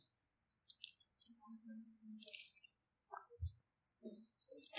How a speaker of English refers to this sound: Sorry, drinking more water.